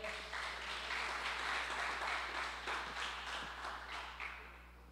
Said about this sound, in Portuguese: Dá um aplauso ao Senhor aí, fica de pé.